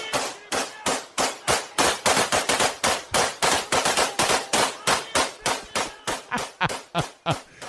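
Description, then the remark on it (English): A long, steady string of loud AK-47 rifle shots fired into the air at night in Russia by celebrating fans, roughly three cracks per second, each sharp and echoing, continuing for several seconds with no voices. “you know, just random gunfire into the Russian night.”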